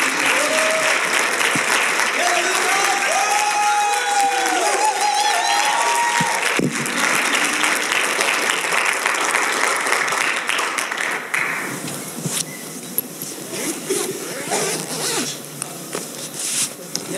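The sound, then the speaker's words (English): An audience claps steadily in a dense, sustained wash of applause for about eleven seconds, giving a warm welcome to a speaker coming up to share the word, then the clapping thins out and fades to scattered sounds with faint murmuring. “Would you give him a warm welcome and each that follows?”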